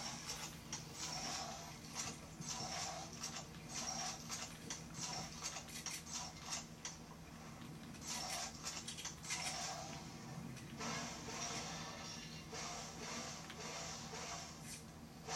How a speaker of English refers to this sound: This pickaxe is highly annoying. I was gonna say, it sounds like a buzzsaw. It's a chainsaw.